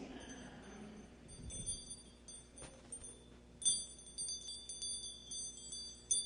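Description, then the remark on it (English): Two keys meant to hang on a Christmas tree jingle softly in a light, uneven metallic tinkle, with small clinks coming in brief bursts and growing a bit busier toward the end, no voices present. “Keys.”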